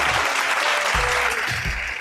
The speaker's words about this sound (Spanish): Fuerte el aplauso.